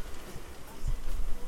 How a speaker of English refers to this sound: I'm out in the garden. It's sunny, it's very blustery, and you can probably hear a little bit of that